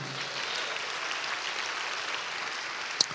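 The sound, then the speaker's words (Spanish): An audience applauds to give God applause, in a steady, dense wash of clapping that holds at an even level throughout, with one sharp click near the end. “Dale un aplauso a Dios por eso, amado hermano.”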